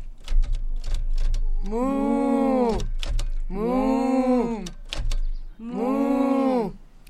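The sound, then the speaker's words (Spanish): A quick burst of sharp typewriter key clacks opens, then a few more scattered clacks fall between three long, loud, drawn-out moos, evoking the typing cows of Doreen Cronin's book Click Clack Moo. Nobody speaks. “A sus vacas les gusta escribir a máquina. Todo el día las escucha.”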